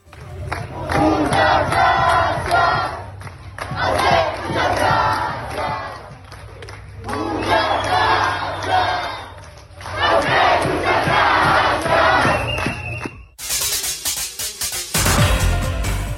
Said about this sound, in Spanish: Aquí una muestra del reconocimiento al personal de salud que se escuchó en una de las manifestaciones en el municipio de San Pedro.